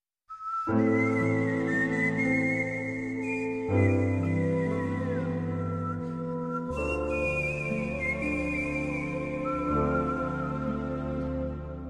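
A person whistles a clear, gliding melody over a sustained orchestral accompaniment, loud and steady throughout, in the soundtrack of last October's Munich Tatort, whistled at the request of the soundtrack's composer, with no one speaking.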